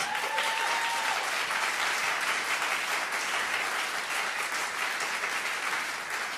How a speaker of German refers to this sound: Das wäre jetzt wieder der Moment für einen tausenden Applaus für Jesus.